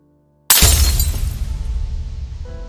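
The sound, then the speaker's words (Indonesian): A sudden loud boom erupts from near silence, followed by a long crash as a row of classroom window glass shatters, rattling and scattering as it slowly fades, with no voices. “Bunyi dentuman kembali terdengar bersamaan dengan kaca jendela satu kelas yang pecah berjajaran.”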